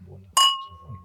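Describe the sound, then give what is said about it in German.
A single bright clink of wine glasses touching in a toast, followed by a clear ringing tone that slowly fades, with faint low murmuring voices before and after. “wird aber trotzdem vielleicht mir das nicht nehmen lassen, um nochmal auf unseren geliebten Sponsor von Winning anzustoßen”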